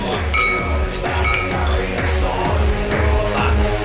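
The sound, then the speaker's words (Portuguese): Glasses clink together a couple of times in a toast, bright short rings over steady background music with a thumping beat and some voices. “Ó, o que, que a gente não fez ainda? Não brindou?”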